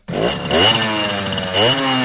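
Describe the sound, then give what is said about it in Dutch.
A buzzy, high-pitched moped (motorbrommer) engine revs up twice, its pitch climbing sharply each time before settling into a steady, loud drone. No one speaks. “Er kan echt maar één, één, één motorbrommer zijn.”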